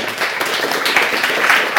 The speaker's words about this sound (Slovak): My vás pozdravujeme. Tento potlesk patrí vám